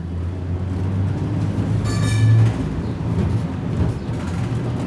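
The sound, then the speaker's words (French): Steady low rumble of a tram in motion in Salt Lake City, Utah, heading to the city centre, with a constant engine hum and a brief high-pitched whine or squeal midway through, heard from inside the vehicle. “Nous montons dans le tramway pour rejoindre le cœur de Salt Lake City.”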